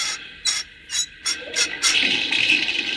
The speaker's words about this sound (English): Now, now, as soon as I set the water pipe into the boiler, you can turn the spigot. There. Now the water will go into the engine boiler. Uh, give that spigot a whirl,